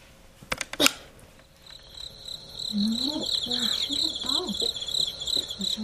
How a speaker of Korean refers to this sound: 이게 바로 귀뚜라미 소리예요. 사마귀에겐 맛있는 먹잇감이겠죠?